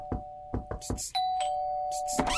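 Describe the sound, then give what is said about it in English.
A doorbell rings: a few quick tapping hits over a steady tone, then a sustained electronic chime holds for over a second. It is fairly loud and there is no talking. “Uh, so I think someone else is at the door.”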